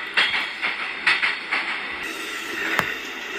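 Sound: train running on rails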